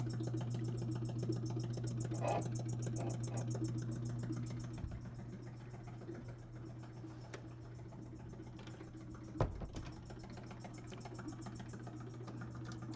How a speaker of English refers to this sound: What you hear is a vacuum pump. I have a little gauge here to tell me whether or not it's working, whether uh, this chamber is being evacuated.